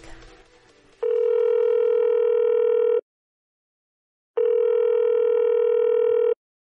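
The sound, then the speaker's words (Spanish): A telephone dial tone sounds twice before a phone interview call, each a steady electronic hum lasting about two seconds, separated by a pause of silence. It is loud, with brief faint noise before it and no talking. “les invito a escuchar esta entrevista telefónica.”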